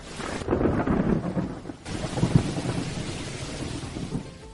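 A thunderstorm: deep rolling thunder swells twice over a steady hiss of rain, full, with a gusty wind-like rush throughout and no voices.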